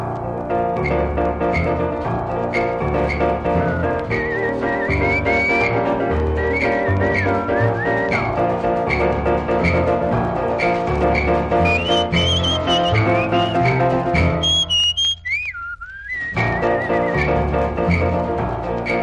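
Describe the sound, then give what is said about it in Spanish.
A bright whistled melody rides on top of a lively carnival song played by a full band with piano and rhythm section, the whistling loud and upfront, briefly breaking into a solo high trill near the end. “una canción de la que es imprescindible aprenderse el silbido.”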